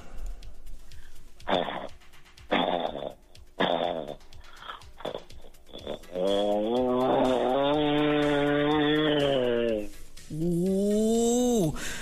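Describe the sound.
A person imitates a motorcycle engine with their voice: several short sputtering revs, then a long, loud, steady buzzing drone that drops off and starts up again briefly.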